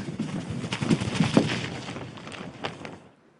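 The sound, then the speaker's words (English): Rapid, fluttering bursts of cloth-like flapping, like a bird's wings beating, made by shaking a sheet or kitchen gloves as a movie sound effect, repeating irregularly for about three seconds before stopping. “they haven't really recorded the bird it sounds a lot more realistic if you record a sheet or shaking kitchen gloves.”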